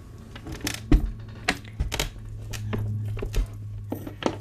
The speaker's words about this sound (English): I'm just going to shut the window. Hang on a sec.